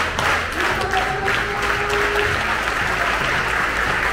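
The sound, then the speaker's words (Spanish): A group claps steadily during a body warm-up exercise, a dense wash of many hands clapping at once, fairly loud and sustained throughout with no pauses, a few faint tonal murmurs beneath the noise. “El corazón empezó a aplaudir.”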